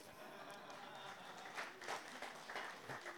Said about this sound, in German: Das, danke, Mike. Sehr aufmerksam. Applaus für Mike.